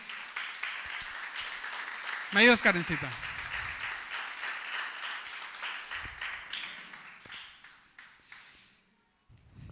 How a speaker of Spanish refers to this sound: Denle un aplauso a Cristo, que Él vive.